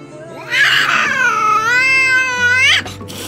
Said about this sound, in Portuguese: Gato, então, desce daí!